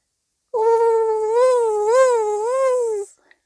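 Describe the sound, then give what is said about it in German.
A loud buzzing hum of a fly at someone's ear, droning steadily for about two and a half seconds with a gently wavering pitch, then stopping abruptly. No one speaks. “Und dann hörte ich wieder ein Summen an meinem Ohr.”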